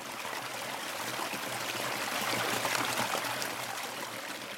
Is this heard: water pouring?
yes